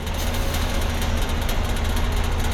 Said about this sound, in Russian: Это какая-то... Что это такое? Какой-то мопед. Не знаю, газонокосилка едет.